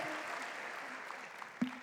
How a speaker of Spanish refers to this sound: Un aplauso al Señor.